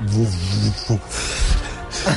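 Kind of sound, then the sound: nature, wind blowing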